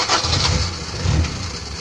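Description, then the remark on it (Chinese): A car engine turns over and starts. A low, rough rumble swells in two louder surges, then settles into a steady idling hum with a faint hiss above it. “哎，汽车一响，咱们是黄金万两。”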